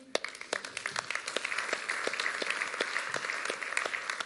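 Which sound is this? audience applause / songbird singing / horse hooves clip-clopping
audience applause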